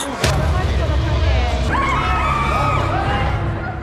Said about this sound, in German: Ein Schlag. Das ist das, was wir vor dem einsetzenden Geschrei hören.